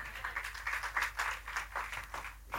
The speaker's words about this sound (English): Okay, you're slow clapping it in, so I got to make this more real.